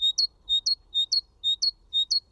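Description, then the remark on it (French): Great tit song: a high, clear two-note phrase repeated five times in a quick, steady seesaw rhythm, with no voices over it. “Ah voilà, ça, tout le, monde, le, tout le monde le reconnaît, c'est la maison charbonnière.”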